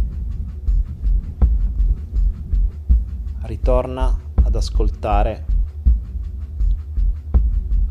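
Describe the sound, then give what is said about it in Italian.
A steady, deep shamanic drum beats in a continuous rhythmic pulse of soft thumps, while a calm voice speaks briefly over it in the middle. “il respiro, il cuore, i tamburi sciamanici, la mia voce”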